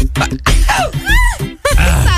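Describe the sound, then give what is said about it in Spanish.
A couple of sharp, breathy sneezes burst out, loud and abrupt, with wavering voiced exclamations and groan-like sounds in between. “Hasta esto, hasta estornudan, vieron ganas.”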